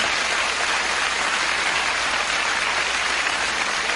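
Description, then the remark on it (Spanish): Sustained applause from a crowd for everyone, welcoming the new members, a dense, steady crackle of many hands clapping at once for the full stretch, with no voices standing out. “Un gran, gran, gran aplauso para todos.”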